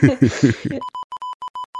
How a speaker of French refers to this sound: Tu mettras des bips au montage.